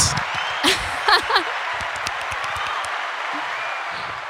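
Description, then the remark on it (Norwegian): Steady applause, played as a sound effect, fills the whole clip as a dense, even wash of clapping, with a few brief voiced shouts or whoops rising above it early on. “Nei, men du kan synge, og så tar du applaus.”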